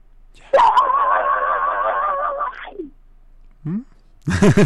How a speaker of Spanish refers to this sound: Venga, ¿estás listo? Va, que va. Grito metalero en 3, 2, 1.